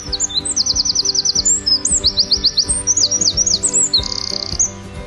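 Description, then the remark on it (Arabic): Small birds chirp in quick, bright bursts from start to finish in garden lemon, orange and grape trees where they have built nests of straw and wooden sticks, high trilling runs repeated over a steady musical backing with a soft beat. “بيتي بيت بيوت حديقته بيت شجر ليمون وبرتقال وعنب بيتي بيت بيوت على اغصان الشجر بنت العصافير اعشاشها من قش وعيدان خشب”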